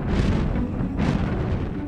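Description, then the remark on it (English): A dragon breathes out a spray of flames: a loud, continuous roaring rumble with two hissing surges of fire, one at the start and another about a second later, with no voices. “Crispin's father let out a powerful spray of flames.”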